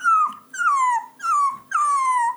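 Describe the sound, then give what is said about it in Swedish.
A Boston terrier puppy whimpers in four drawn-out, high whiny cries, each sliding downward in pitch, fairly loud, with short pauses between them and no talking. “ja, när jag skaffade en liten Boston terrier.”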